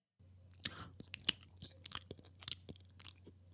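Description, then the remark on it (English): Crunchy chewing with a run of sharp, irregular bites and crackles over a low steady hum, no voices present. “Can you hear that? That's me eating crow.”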